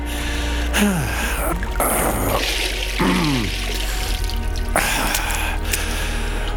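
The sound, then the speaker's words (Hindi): Water sloshes and splashes in a bathtub as someone stays underwater to find out how long a person can survive under water, coming in a few surges with bubbly, gurgling swirls between them over a steady low hum. No one speaks. “आखिर कितनी देर कोई पानी के अंदर जिंदा रह सकता है मेरी कोशिश भी इस बात टब में वही जानने की थी”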